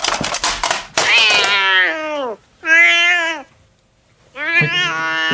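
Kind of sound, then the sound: animal, cat yowling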